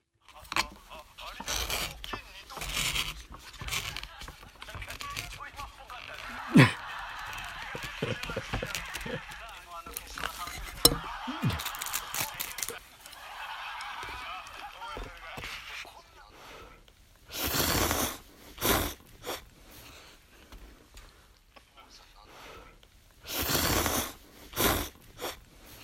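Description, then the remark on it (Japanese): Someone slurps year-crossing soba noodles on New Year's Eve in several loud, noisy bursts, with a comedy program playing on a TV in the background: voices talking and an occasional stifled laugh from the eater. “お笑い番組を見ながら年越しそばを食べる音ですこの数年変わり映えのない年越しですが穏やかな1年の始まりにささやかな幸せを感じております”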